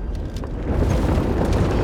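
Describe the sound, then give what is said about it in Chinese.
A deep, continuous earthquake rumble with heavy low-end roar, growing slightly louder partway through and staying steady, with faint crackling debris-like bursts on top; no voices. “呃呃呃，有地震，有地震呐！”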